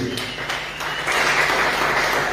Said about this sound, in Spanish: Un fuerte aplauso a Rey de Reyes.